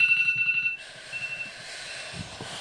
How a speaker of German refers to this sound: Jo, und ich würde sagen, dass wir danach dann auch schon, weil mein Timer gerade geht, Leute, und dann würde ich sagen, dass wir danach auch schon.